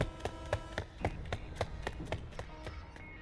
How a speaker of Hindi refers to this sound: रात के बारह बज गए फिर से किसी के कदमों की आवाज पूरे घर में गूंजी